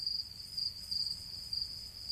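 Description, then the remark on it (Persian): A dense chorus of crickets chirping in a steady, unbroken high-pitched trill, with a soft low rumble underneath and no voices, on a semi-automated, commercial-scale cricket farm in a dimly lit warehouse in Austin, Texas, USA, where millions of crickets are raised each month for food. “جیرجیرک این مزرعه نیمه اتوماتیک و در مقیاس تجاری جیرجیرک زایده فکر گیب مات، شوبی تاسور و محمد آشور بنیانگذاران گروه غذایی اسپایر است.”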